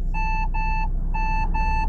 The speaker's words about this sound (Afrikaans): Die Sportage EX is nogal heel luuks en bied ook 'n lang lys veiligheidskenmerke soos blindekol waarskuwing. In Trirat gee hy vir jou 'n waarskuwing van die verkeer wat agter jou verbyry.